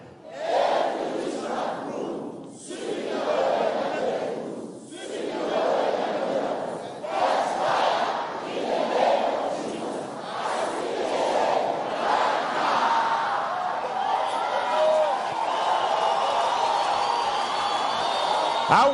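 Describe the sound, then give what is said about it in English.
A large audience cheers and shouts exuberantly, a dense, sustained roar of many voices with rising whoops and yells, loud, continuing without pause. “to hear the joy in the house.”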